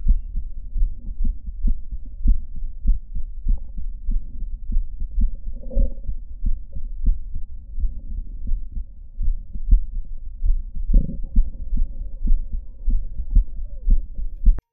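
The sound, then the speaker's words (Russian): Stethoscope recording of a patient's heartbeats after mitral valve repair, with the murmur and diastolic clicks gone and an irregularly irregular rhythm of atrial fibrillation, dull low thumps arriving at uneven intervals over a steady muffled background, with no one speaking. “Шум и диастолические щелчки исчезли. Появилась фибрилляция предсердий.”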